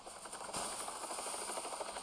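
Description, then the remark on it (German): A helicopter in a video game drones steadily overhead, its rotor chop pulsing in a rapid, even rhythm under a broad whooshing roar that stays loud throughout, with no voices. “Ihr hört den Helikopter.”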